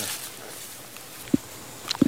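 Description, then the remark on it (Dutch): A few soft footsteps crunch at an unhurried pace against a quiet outdoor background with a faint airy hiss, as people walk on the way to a plantation. No one speaks. “Ja, we lopen nu op weg naar de plantage, maar we komen hier eerst langs het familiekerkhof.”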